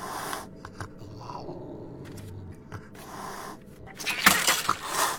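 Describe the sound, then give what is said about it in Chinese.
A cat named Shandian (Lightning) hisses with hostility: harsh, breathy bursts of hissing, a short one at the start and a louder, sustained spitting hiss at the end, with softer rustling noise between them. “伴随着一阵猫咪迸发敌意的嘶叫声，闪电从小 A 的臂弯里挣脱出来，逃向了电梯间。”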